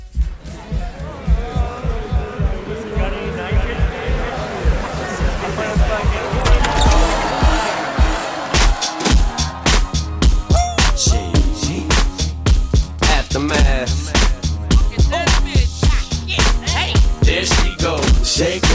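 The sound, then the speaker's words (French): A hip-hop song intro opens with car engine and tire-squeal sounds, then a loud, steady thumping beat kicks in and keeps a regular rhythm through the rest. “Je vous propose donc d'écouter un de ses plus gros tubes pour se remémorer ou pour vous refaire découvrir cet artiste”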